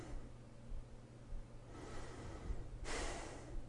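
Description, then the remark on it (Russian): Two deep, audible breaths of a person just woken up in the morning, a long airy inhale followed by a stronger exhale, with a quiet low hum underneath and no talking. “Дышим. Видим. Живем.”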